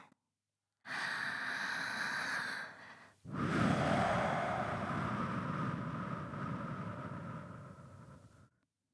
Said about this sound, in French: La sueur perle sur les fronts et des respirations.